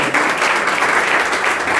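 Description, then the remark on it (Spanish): Sustained applause from a church audience, given to the Lord Jesus during a service, fills the space, a dense, steady wash of clapping hands that stays loud and even throughout, with no voices standing out above it. “Tome su lugar, tenga la amabilidad y ríndale un aplauso al Señor Jesús, hermano.”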